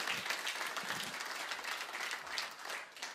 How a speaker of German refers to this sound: Leute, das ist das größte Fest aller Zeiten. Deswegen gebt ihr nochmal einen Applaus, bitte.